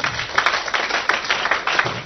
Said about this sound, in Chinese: 好，非常不错啊，呃，第一组还是非常不错的。来，再给第一组掌声鼓励一下。